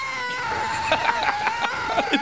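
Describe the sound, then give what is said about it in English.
A voice imitates car tires squealing on the paved surface of a parking garage roof while driving at about five miles an hour: a steady, high-pitched whine held for a couple of seconds, broken by short choppy bursts, fairly loud with nothing else around it. “Whatever that's paved, you could be driving five miles an hour. It sounds like you're in a chase scene from Chips.”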